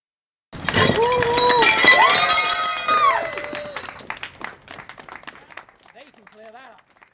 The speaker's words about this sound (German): Ja, ihr habt hier den ganzen Beitrag über schon gehört, dass Klirren und Scheppern, das sind Ersatzteile, die Fahrerinnen und Fahrer, die dort vor Ort waren, vor der fodora zentrale auf den Boden geworfen haben,